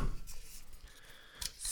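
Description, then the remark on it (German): A can of cherry Radler beer (2.3% alcohol) being opened: a sharp metallic click followed by a bright, airy hiss of escaping gas, with some handling rustle before it and no talking. “So, schönes Zisch.”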